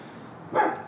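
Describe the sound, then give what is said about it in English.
A single bark from the dog next door, one short sharp woof over a quiet background hiss, with no one talking. “Um, and now the dog next door decides to”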